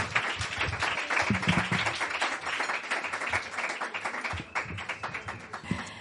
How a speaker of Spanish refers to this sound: Eh, y vamos con el concierto de …. un aplauso muy fuerte para ….